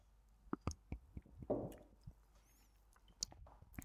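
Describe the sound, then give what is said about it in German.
Quiet sips of a drink just opened for a toast: wet slurping and swallowing noises with a few short clicks and squishes scattered over a few seconds, no talking. “Dann sollten wir eigentlich einen Schluck trinken und dann überlegen, ob wir Feedback haben.”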